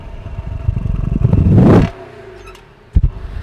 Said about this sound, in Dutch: Mwah. Komt er wel in de buurt. Absoluut ook weer een heerlijke achtcilinder waar ons hartje echt sneller van gaat kloppen.